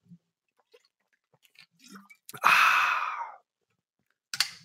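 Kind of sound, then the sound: human body sound, sipping water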